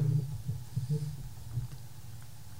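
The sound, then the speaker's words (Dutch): A mobile phone vibrates, giving a low, quiet buzzing hum in a few short pulses that fade into a steady faint drone, with no one talking. “ik heb het idee dat iemand zijn telefoon Ja, ook, ook, dat gebeurt.”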